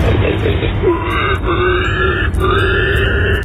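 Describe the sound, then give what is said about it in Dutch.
A person imitates a pig, sent in via the Radio 10 app for an animal-guessing game, with loud, continuous rough grunting for several seconds, broken by a few squealy, rising tonal sweeps. No other talking is heard. “Dit moet een varken zijn.”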